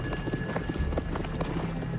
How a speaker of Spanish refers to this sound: Monta en su caballo. Él y los jinetes que lo acompañan cabalgan hacia las tropas inglesas.